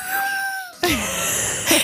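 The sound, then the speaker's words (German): A voice imitates the cow-like grunt made while breastfeeding a baby at night: a thin, steady high whine gives way to a breathy, noisy groan that slides downward in pitch, ending with a short rough huff. “du, stillst, du stillst unser Kind und gut, grunzt dabei wie eine Kuh.”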